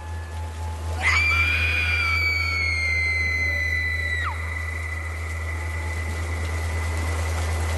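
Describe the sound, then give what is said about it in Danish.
A single long, piercing eerie scream rises sharply, holds a shrill tone for about three seconds, then drops away, over a constant low rumble and steady hiss; the scream comes from an assembly hall and is heard down at the harbour in heavy rain. “Imens Ophelia står modløs i den tykke regn, hører hun et uhyggeligt skrig.”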